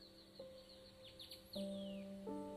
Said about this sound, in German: Vielleicht kannst du die Geräusche wahrnehmen der exotischen Vögel hier im Wald das sanfte Rascheln der Bäume und Palmen im Wind. Lass die Geräusche auf dich wirken.